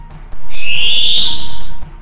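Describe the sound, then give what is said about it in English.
A long-tailed cuckoo gives one loud, shrill cry, a piercing whistle that rises slightly and holds for about a second and a half before cutting off, heard on its own. “The birds heard his cry”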